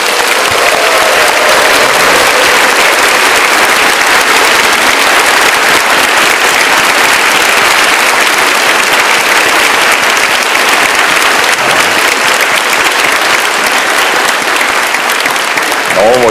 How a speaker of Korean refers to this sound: 우리 이 자리에 있는 우리 미취학 또 우리 자녀들, 우리 청년들을 향해서 우리가 어른들이 보낼 수 있는 가장 뜨거운 사랑의 박수로 격려합니다.